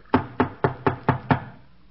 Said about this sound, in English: You afraid? Who's afraid? Knock louder.